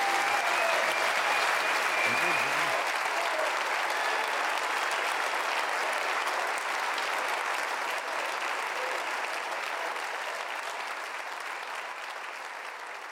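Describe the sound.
Sustained audience applause at a Berliner Ensemble staging about the Correctiv exposé of a far-right secret plan against Germany, a dense steady wash of clapping that stays loud throughout and tapers only slightly toward the end, with a brief murmur of voices near the start.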